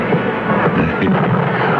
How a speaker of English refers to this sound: So it became their unspoken secret until the night of the fireworks display on the 4th of July.